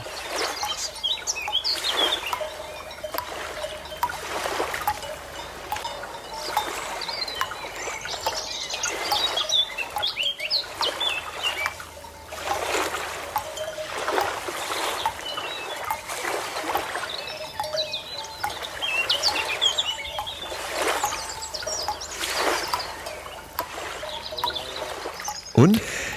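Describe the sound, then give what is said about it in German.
An outdoor meadow scene: busy birdsong and chirping over a steady rushing wash of the sea, like surf, with faint ringing tones of cowbells mixed in, continuous and fairly even for the whole stretch. “Also ich sehe eine Wiese, ich sehe äh, ich sehe die Vögel, ich sehe äh, Kühe mit Glocken und sehe das Meer und äh, ja.”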